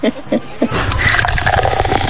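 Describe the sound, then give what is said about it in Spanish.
A few light clinks, then a drink is poured steadily into a glass, a continuous splashing gurgle that lasts until the end. “Es más, dame una copita esa, dame una copita.”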